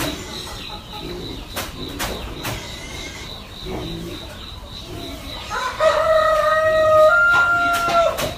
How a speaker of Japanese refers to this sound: 見事なコケコッコ上手、ね、すごいでしょこれ朝5時なんですよね朝5時うるさいわ